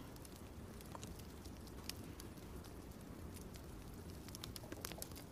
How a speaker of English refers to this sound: And we'll have some wine and listen to the peaceful crackles and pops of the wood burning.